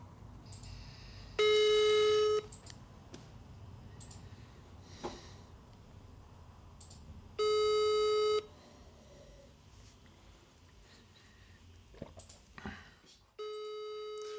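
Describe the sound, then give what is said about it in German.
A telephone ringback tone sounds three times as someone places a phone call, each burst about a second long and spaced several seconds apart, heard clearly over a quiet background with faint breathing and small noises between rings. “Mein Gott, kann hier keiner ans ja, Telefon?”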